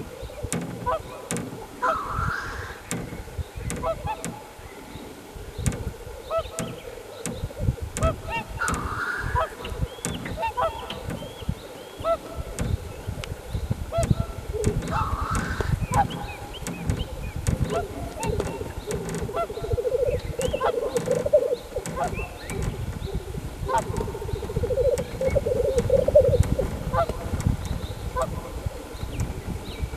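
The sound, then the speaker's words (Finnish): Swans calling in the background of a recording meant to capture a black grouse's display, with repeated nasal, honking notes at irregular intervals, some rising in brief bursts, over a steady low rumbling background that continues throughout. “Selvästi joutsenien taustalla.”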